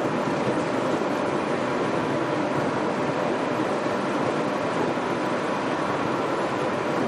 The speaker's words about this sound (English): By the way, just to be clear, I have the whole car of myself this is kind of fun. You know, you don't often get a whole car to yourself. I'm riding in the monorail, and there's no one around me. This is so cool.